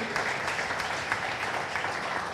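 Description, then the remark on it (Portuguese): A church audience claps steadily, applauding God for the visitors, a dense wash of many hands with sharp individual slaps poking through, sustained at an even moderate loudness for the whole stretch with no voices. “Vamos aplaudir a Deus pela vida dos nossos visitantes.”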